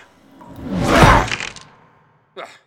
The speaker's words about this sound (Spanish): Con una brutal cachetada de su mano metálica, el coronel Tromba asesinó sin miramientos al desventurado joven.